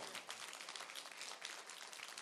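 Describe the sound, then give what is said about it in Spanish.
Sustained applause from an audience giving applause to Christ: dense, steady clapping from many hands filling the whole clip, bright and fairly loud with no pauses. “Dale más fuerte el aplauso a Cristo.”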